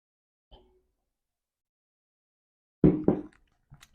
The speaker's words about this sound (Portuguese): Deixa eu tomar mais uma água aqui.